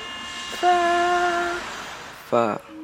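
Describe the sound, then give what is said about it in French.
A metro train's electric motors give off a steady, pitched whine that holds for about a second, over a rumbling background, followed by a brief harmonic, voice-like sound near the end. “Par exemple, euh, oh, le métro, il fait quelle note quand il fait ça”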